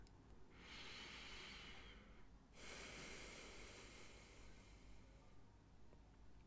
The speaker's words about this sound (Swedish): Nu hörde du kanske mitt andetag.